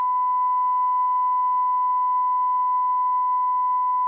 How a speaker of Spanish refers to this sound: Pitido otra vez. Mira, esto ya se está pasando de pitidos.